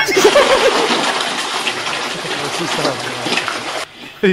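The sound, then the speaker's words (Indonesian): The audience at an evening stand-up comedy show applauds at the host's request in a steady, dense wash of clapping that fills nearly four seconds at a strong level, with faint voices under the start, then stops abruptly before a brief voice returns. “Sebelumnya boleh minta tepuk tangan untuk kita semua yang hadir pada malam hari ini.”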